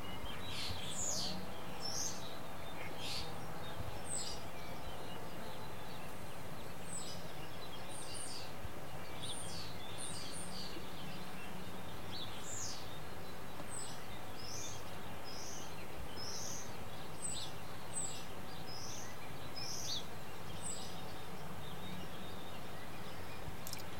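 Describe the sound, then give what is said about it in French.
Birds chirp and sing in short, repeated bursts throughout, bright and fairly close, over a steady low hum of distant engine or background noise. No voices. “C'est le début du printemps, un peu en avance. On entend les oiseaux.”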